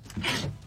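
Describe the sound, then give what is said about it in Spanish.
A single short sneeze, a quick breathy intake followed by a sharp hissy burst that fades within half a second, at moderate loudness with no talking over it. “Salud.”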